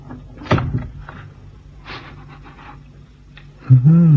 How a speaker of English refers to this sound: And now's my chance to try the door handle.